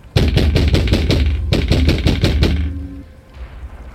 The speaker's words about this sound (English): And you can hear the sound of crashing and breaking, and the sound of fists thumping against a wooden door.